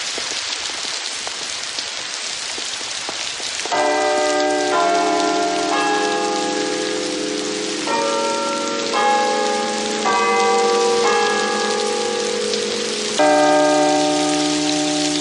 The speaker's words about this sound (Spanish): Una intensa lluvia deshace los montones de nieve formados por las palas de los barrenderos.